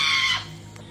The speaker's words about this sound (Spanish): Cabrón, no mames, güey, puto pájaro, güey.